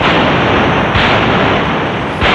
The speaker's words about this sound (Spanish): 21 cañonazos anunciaron la salida del rey del Palacio Real camino de la carrera de San Jerónimo.